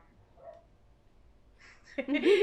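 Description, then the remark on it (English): After a couple of seconds of near silence, a dog lets out a sudden loud bark with a rising, yelping edge that fills the final half-second. “Um, can you hear the dog laugh?”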